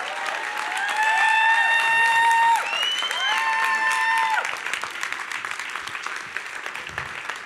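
An audience applauds in a dense, steady wash of clapping, with a few whoops and whistles over the top in the first half before the applause thins out toward the end.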